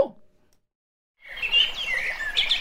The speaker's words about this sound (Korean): 로고 듣고 돌아오겠습니다. 로고 주세요.